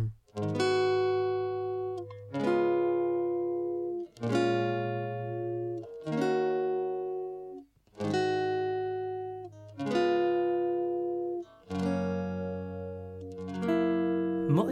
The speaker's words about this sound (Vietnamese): chúng tôi dành tặng quý vị uh, giai điệu của một ca khúc rất là hay và đặc biệt